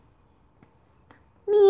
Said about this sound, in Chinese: 喵！威尔伯大叫一声，用爪子捂住了眼睛。